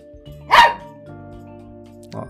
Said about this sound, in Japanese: ちょっとワンワン言ってます。後ろでワンコが泣いてる。ワンワンワンワンワン言ってますけども。